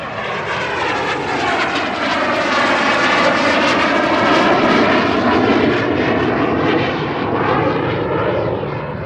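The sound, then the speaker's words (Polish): A loud airplane engine roars past, a steady powerful rumble that swells and slides in pitch as the aircraft passes overhead, with no voices. “czy co, nie przyjechaliście sobie poglądać samolota?”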